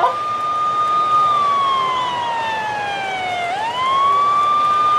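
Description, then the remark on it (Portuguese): A loud police siren wails continuously from a police car that has just pulled up, its pitch holding steady, then sliding down and sweeping back up, with faint street noise underneath and no one speaking. “Acabou de encostar uma viatura aqui da polícia.”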